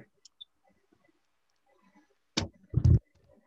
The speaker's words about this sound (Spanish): escucharon eso, se me cayó el teléfono.